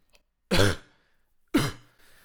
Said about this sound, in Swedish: Just nu har jag lite svårt att spela in på grund av hosta från en tidigare havd förkylning.